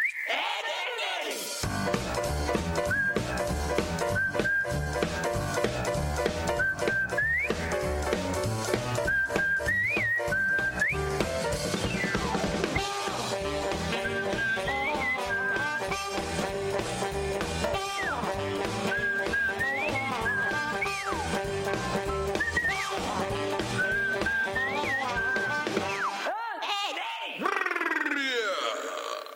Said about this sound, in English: I think it was an original song for the show, but I'm not 100% sure. Let's hear the Ed and Eddie theme song.